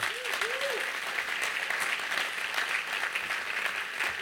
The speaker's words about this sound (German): Lass uns ihn mit einem herzlichen Applaus begrüßen.